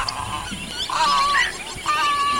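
Cattle egret calls: a few harsh, nasal croaks in quick succession, loud, with a low rustling background and no talking.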